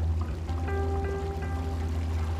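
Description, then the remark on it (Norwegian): A steady wash of flowing stream water, about ten metres wide, seen from a small bridge, with a low rumble underneath, joined briefly by a few faint tonal chirps partway through. No one speaks. “Nå ser vi bekken.”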